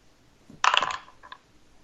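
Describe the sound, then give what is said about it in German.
A short clatter of dice tumbling onto a hard surface, a quick rattling burst followed by a couple of faint small clicks as they settle. No one speaks. “Dann würfel nochmal, denn äh, es gibt hier genau 1, 2, 3, 4, 5, 6 Artikel.”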